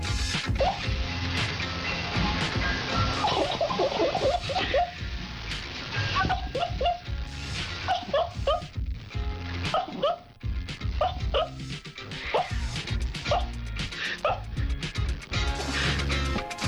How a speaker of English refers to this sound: And this next clip is a dog in his dream chasing who knows what, though we can imagine.